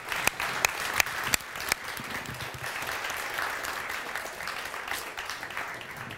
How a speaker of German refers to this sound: Eben ähm, bei den ähm, Proben hat sie immer bei Applaus gebellt. Wollen wir mal kurz applaudieren, mal sehen, ob sie es wieder macht?